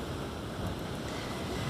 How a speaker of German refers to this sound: Ich sitze hier vorne am Rand einer Klippe und die Wellen schlagen hier gegen die Steine und man hört es richtig, richtig krass.